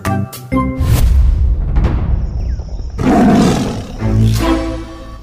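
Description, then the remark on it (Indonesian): A lion roars loudly several times, deep rumbling growls rising into harsh, sustained roars across a few seconds, with no talking over it. “Singa menghampirinya dan ingin menjadikan kancil sarapannya.”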